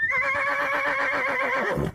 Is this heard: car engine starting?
no